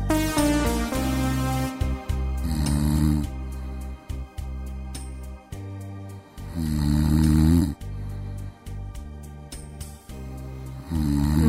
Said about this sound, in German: Na, fühlen Sie sich gerade auch ein bisschen an die letzte Nacht erinnert? Vielleicht schnarcht ihr Partner oder ihre Partnerin ja auch und das kann manchmal ganz schön aufregen. Da kann man überhaupt nicht mehr schlafen.